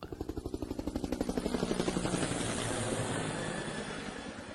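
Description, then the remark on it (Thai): A helicopter flies over, its rotor giving a fast, rhythmic chopping thump that swells louder before blending into a steady, broad engine roar with a hissy wash on top. “Yeah that's a helicopter a helicopter or a chopper เรียกได้สองคำนะครับ helicopter หรือ chopper a chopper C H O P P E R นะครับ a chopper or a helicopter”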